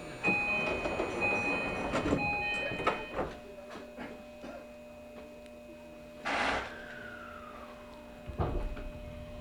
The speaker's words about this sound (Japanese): 号列車12時31分発普通列車小松行きですまもなく発車いたします